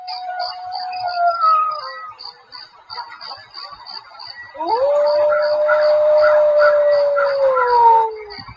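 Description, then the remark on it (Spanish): A wolf howls twice, first a shorter falling wail, then a long sustained howl that swells and slowly fades, while a faint high chirping pulses steadily in the background. “cuando de repente se encuentra con un lobo.”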